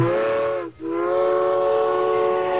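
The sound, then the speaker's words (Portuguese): A loud, sustained train whistle blows with rich harmonic tones, briefly cutting out for a split second before resuming and holding steady to the end, with no talking. “E lá vem o trem aí, olha aí, rapaz, o trem do Campeonato Mineiro.”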